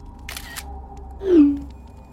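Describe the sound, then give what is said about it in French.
A mobile phone camera shutter clicks twice in quick succession as a photo is taken and sent from the phone, followed by a short, louder descending swoosh, all over a faint steady background hum with no voices. “tout en lui envoyant une photo avec son téléphone portable.”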